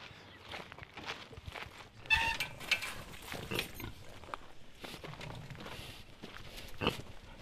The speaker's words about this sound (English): We are walking towards a paddock and we're passing some more of your saddlebacks and they are munching away at something.